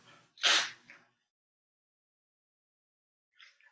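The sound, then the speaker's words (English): A loud nose blow: one strong, breathy honk trailing into a smaller puff, then silence and a faint follow-up snuffle a few seconds later. “blow my nose here.”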